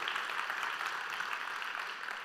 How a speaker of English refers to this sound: Hey, little round of applause for the guys outside today. I mean, woo.